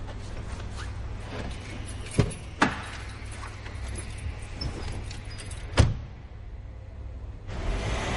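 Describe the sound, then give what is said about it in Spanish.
Keys taken from a coat pocket jingle as a car in a car park is unlocked, followed by a door clicking open and a few sharp mechanical thuds as someone carrying a travel bag climbs in, all over a steady low engine-like hum. “Abre el coche y monta.”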